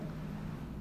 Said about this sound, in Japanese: ごめんなさいね、ちょっとね、聞こえてるんでしょうか、あのー、会議室でね、収録してるんですけど、なんか加湿器みたいな換気のやつの機械が置いてるんですけどね、なんか海の音みたいなしてるんですよね。